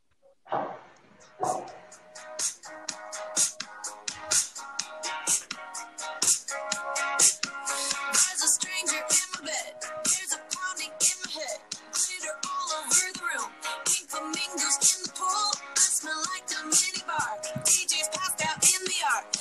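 An upbeat pop song plays throughout, with a steady, punchy beat, bright layered instruments and a busy high end, holding a fairly constant loudness after a brief soft start.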